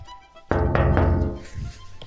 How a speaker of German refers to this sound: du musst ans Sickenberger, ans Sickenberger Ortsschild klopfen, damit die Leute sehen, dass es ein Ortsschild ist.